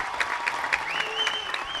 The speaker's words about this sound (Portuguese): sala levanta-se e aplaude a viagem de duas horas na montanha russa.